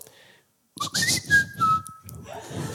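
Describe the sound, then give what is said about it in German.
Someone whistles a short notification-style tune imitating a Samsung phone message tone: a quick rising chirp, then a sustained high note that steps down, sliding over a soft rhythmic background. “Und zwar kann ich den äh, Klingelton von Samsung-Handys, wenn eine Nachricht reinkommt, richtig gut nachpfeifen.”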